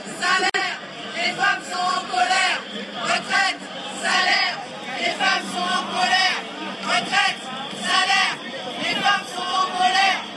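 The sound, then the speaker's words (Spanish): A large crowd of thousands of women shouts and chants in the streets of Paris, France, at a women's rights demonstration on International Women's Day, many raised voices overlapping in loud, continuous waves with rhythmic surges throughout. “Las mujeres están enojadas, gritaban pues miles de mujeres hoy en las calles de París, pero también en las calles de otras 150 ciudades francesas en el marco de esta manifestación por los derechos de las mujeres.”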